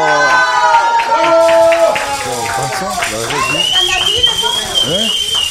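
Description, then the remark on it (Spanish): Audience applause for actor Joaquín Cosío as he is welcomed, many hands in a dense steady patter throughout, mixed with excited voices and bright sustained musical tones playing over the clapping. “Vamos a aplaudirle a Joaquín Cosío.”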